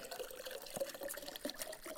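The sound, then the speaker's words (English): Water pours steadily into a glass brought from home for about two seconds, a bright splashing trickle with small gurgles and clinks as the level rises, no voices over it. “I'm gonna pour this water into it, right?”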